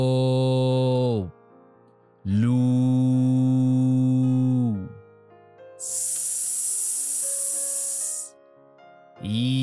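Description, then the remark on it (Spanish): A voice draws out a long, steady hissing 'sss' for over two seconds, vocalizing the letter S of the esoteric name of Kundalini letter by letter, bracketed by sustained chanted vowel tones before and after, all fairly loud. “La S es como un silbido dulce y apacible.”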